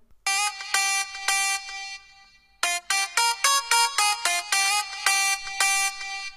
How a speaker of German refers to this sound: Also wenn das nicht der lieblichste Wecker der Welt ist, dann weiß ich auch nicht. Extrem geil. Ich hatte das tatsächlich auch eine Zeit lang als Handy-Klingelton.